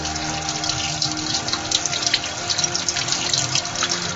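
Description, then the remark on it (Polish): A steady sizzling hiss with scattered crackles as 3 or 4 eggs fry and bubble in rapeseed oil in a frying pan, fairly loud, with a faint low hum underneath and no voices. “Także robię sobie wielkości tej patelni, wbijam 3 lub 4 jajka i czekam tak z 5-10 minut, na jakby się dobrze podsmażyły, ponieważ jak mówię, olejek daję pod rzepakowy, także ona mi nie przylgnie, sobie tak ładnie bulgocze”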